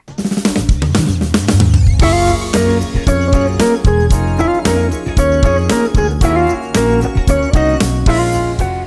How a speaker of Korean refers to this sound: 이제 노래 한 곡 듣겠습니다.